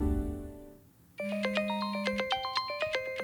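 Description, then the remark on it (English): A phone rings with a melodic electronic ringtone, a quick run of bright chiming notes repeating in a steady, loud pattern, which starts abruptly after a low sustained tone fades away. “Ahmed Ali Akbar picks up the phone.”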